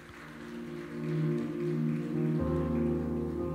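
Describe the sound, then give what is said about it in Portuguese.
A standing church audience applauds the name of the Lord Jesus in a steady, dense patter of clapping over sustained keyboard chords that shift to a new chord partway through; no one speaks. “Vem aqui o louvor, a igreja de pé, aplaudindo o nome do Senhor Jesus.”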